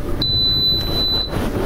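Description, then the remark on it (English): A high-pitched electronic beep from a device holds for about a second with slight pulsing, then returns briefly at the end, over a steady low rumble. “It's beeping, which is they're- they want to make sure we hear enough of I beeps.”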